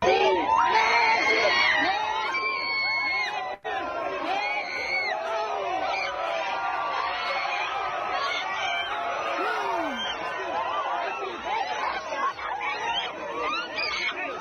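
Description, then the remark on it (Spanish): A dense crowd of fans screams and cheers euphorically at Messi without a break, many high excited voices overlapping into a loud, continuous roar that stays intense throughout. “Los que nos están escuchando solamente, pues escuchen nomás los gritos de euforia de los seguidores.”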